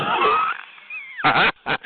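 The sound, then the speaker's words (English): A voice imitates a cat, giving a drawn-out, wavering meow that trails off, followed by two short, louder yowling bursts. “You know, like a cat cat.”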